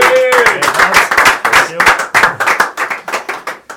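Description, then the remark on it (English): A small group gives a round of applause for two players, clapping steadily and briskly for a few seconds, the dense patter of hands fairly loud, with a brief cheer rising over it at the start. “So give them a round of applause, lads.”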